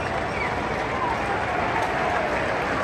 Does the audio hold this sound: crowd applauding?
yes